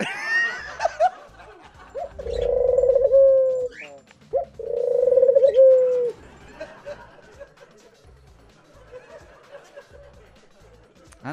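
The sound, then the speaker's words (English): Two long, throaty pigeon coos follow one another in the middle, each a low warbling call lasting over a second, fairly loud against a quiet background with faint bits of other sound. “Wherever the homing pigeon lands, that's your date.”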